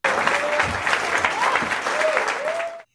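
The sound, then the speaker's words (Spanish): A crowd claps in steady applause for about three seconds to welcome a person being introduced, dense and fairly loud, with faint whoops or voices mixed in before it cuts off abruptly. “un aplauso.”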